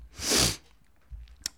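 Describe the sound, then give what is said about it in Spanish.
One loud sneeze, a sharp breathy burst lasting about half a second, followed by quiet, faint rustling and a small click. “Salud.”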